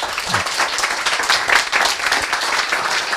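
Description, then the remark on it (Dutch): An audience applauds steadily for a few seconds to thank a speaker, a dense wash of many hands clapping at once, even in loudness with no voices on top. “Maar ik zou hem graag nog bedanken met een, eh, met een applaus.”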